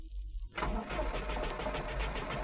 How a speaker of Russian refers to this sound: Ничего не понимающий шофер грузовика изо всех сил выжимал газ и переключал скорости. И вдруг, оторвавшись от прицепа, грузовик понесся по улице.